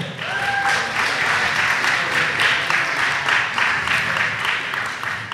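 Steady audience applause fills the whole stretch, a dense wash of many hands clapping at an even loudness, with a faint whistle or cheer briefly rising through it early on.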